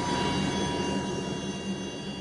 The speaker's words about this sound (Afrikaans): Ons kan die trein sien. Daar kom 'n helikopter en uh, lyk my die helikopter gaan hom wen.